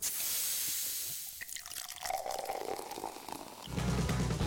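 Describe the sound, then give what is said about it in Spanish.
A 7-Up lime-lemon soda bottle opens with a sharp fizzing hiss, then liquid pours in with a rising gurgle and settles into bubbly carbonation, fairly loud, with no voices. “Escuchar el siguiente sonido puede ocasionar unas ganas incontrolables de destapar una 7-Up.”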